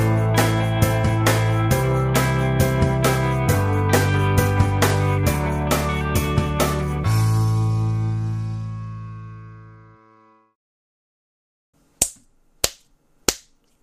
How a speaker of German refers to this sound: Hört man das jetzt besser? Davon kamen zwei durch. Okay, dann schlage ich jetzt weiter mit der Faust in die Hand, anstatt einfach nur zu klatschen. Scheint ja Gewalt ist ja offensichtlich auch bei Tonaufnahmen eine Lösung.